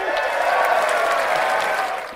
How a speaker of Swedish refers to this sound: Ska lägga in massa barn som eh, hurrar ja, och klappar. Ja. Vi testar.